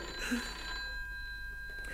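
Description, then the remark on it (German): A telephone bell rings on steadily at the Blue Anchor in Chipwich with a bright, metallic tone, moderately loud, with no voices over it. “Äh, entschuldigen Sie, das ist das Telefon.”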